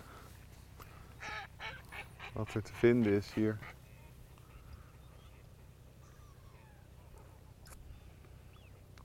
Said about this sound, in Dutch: Er staan ook heel veel smienten tussen. Al die witte buikjes ertussen. En je hoort ze ook af en toe dat.